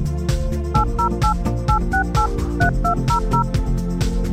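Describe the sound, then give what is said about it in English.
A quick string of about a dozen telephone keypad dialing tones, short paired beeps in an uneven rhythm, sounding over a steady musical background with no one speaking. “Did you hear those tones?”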